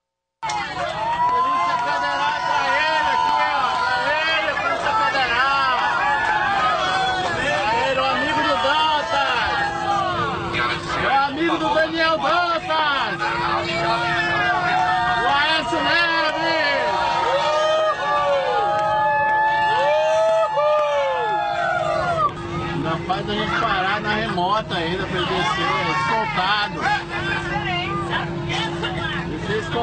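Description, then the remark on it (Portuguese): A recording of a loud, sustained crowd booing and jeering Minister Gilmar, many overlapping shouts rising and falling for about half a minute, with a steady low hum running underneath. “Oh, toca, toca aí a sonora, por favor, Almirante Nelson, para a gente ouvir as vaias ao Gilmar.”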